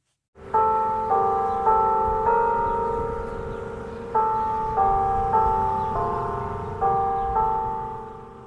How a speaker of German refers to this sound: Das Glockenspiel vom Zeitglocken. Aber nicht von dem berühmten Stadttor aus dem Mittelalter zu Bern. Es ist ein Zeitglockenturm, der allein auf einem Platz steht, zu Bern im US-Bundesstaat Indiana.